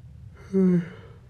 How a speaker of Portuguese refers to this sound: É incrível que eu bocejo, mas não é porque eu tô com sono. É só um, sei lá.